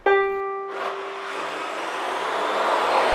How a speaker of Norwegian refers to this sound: Hva er det egentlig vi hører her? Nei, her hører dere en ukulele og et nodescopter. Og bare det, eller? Ja, det er litt støy fra notekopteret, men um, det er et notekopter som er styrt av den ukulelen